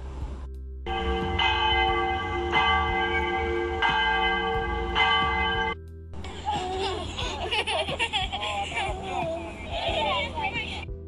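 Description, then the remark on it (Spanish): A school hand bell rung by the teacher at the end of the last afternoon class rings out loudly for several seconds with a few rhythmic swings, its tone sustaining, then a burst of children laughing and shouting takes over. “Sentía que en la última clase de la tarde los muchachos casi no ponían atención, puesto que querían salir corriendo tan pronto doña Carola tocaba la campana.”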